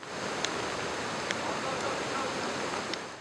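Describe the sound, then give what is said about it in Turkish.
Steady, dense rush of water fills the scene, a broad roaring wash of a creek swollen by heavy rain in Serik district, with a few faint brief clicks on top and no talking. “Serik ilçesinde de şiddetli yağış nedeniyle derenin debisi yükseldi.”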